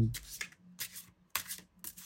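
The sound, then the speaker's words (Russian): Tarot cards being shuffled in three quick bursts of crisp, papery riffling, each a soft rushing flutter separated by short pauses. “Надеюсь, карты выдержат этот вопрос.”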